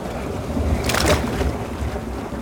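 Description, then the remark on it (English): A heavy metal dredge shaped like a large clamshell drops from the back of a small anchored boat into the south end of Lake Tahoe with one brief, sharp splash, set against a steady low rumble of wind and water, to scoop up a lake bed sample. No one speaks. “So we're basically gonna drop this in the water.”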